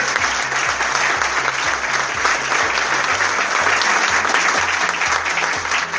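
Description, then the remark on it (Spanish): An audience at a festival prize-giving claps loudly and steadily for the festival's producer for the full six seconds, a dense, unbroken wash of applause, with a low, stepping bass line of music pulsing underneath. “Fuerte el aplauso para Fabián, el productor del festival.”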